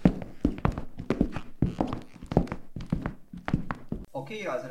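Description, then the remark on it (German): Brisk footsteps thud along at a steady walking pace, fairly loud, as someone walks over to where a man is sitting, a dozen or so steps before they stop and a brief tonal sound takes over at the end. “Und der sitzt hier drüben. Gehen wir da mal hin.”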